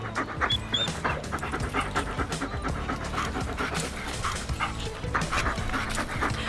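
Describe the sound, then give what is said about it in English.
A dog named Gus pants heavily and rapidly, a steady rhythmic huffing that continues throughout without any talking. “Oh, hey, buddy. Came over for some kissy.”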